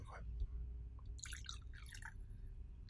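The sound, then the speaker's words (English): A drink is poured into a cup, a brief trickling, splashy pour lasting about a second over a low, steady background rumble. “We're pouring up again.”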